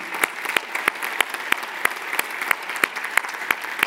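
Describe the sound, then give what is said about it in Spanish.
Audience applause celebrating a person's decision, a steady wash of many hands clapping, with sharper claps landing in an even, brisk rhythm about three times a second throughout. No one speaks. “¿Está el miedo a ser interrumpido por un aplauso?”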